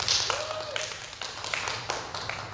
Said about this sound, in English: You can clap. I see you trying.